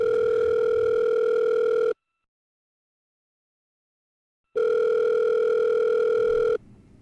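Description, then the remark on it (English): A telephone dial tone, a loud, steady electronic hum heard in two long two-second bursts separated by a silent pause, clear with no voices, as someone picks up the phone to make a call. “I pick up the phone, call him,”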